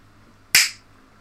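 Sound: hand clapping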